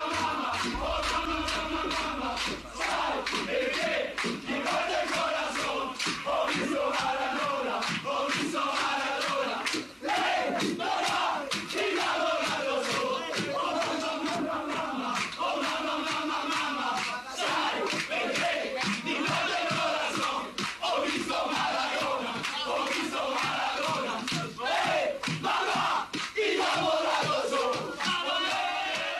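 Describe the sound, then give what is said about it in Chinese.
A rowdy group of Napoli football players sings and shouts together in the locker room, celebrating the club's first league title in 1987, loud and unbroken for half a minute, with rhythmic claps or stamps punching through the chorus; the song is about Maradona. “我觉得，既然说到一九八七年啊，咱们就一块来听一下一九八七年那不勒斯第一次夺冠之后，他们在更衣室里边球员们的庆祝和歌声。”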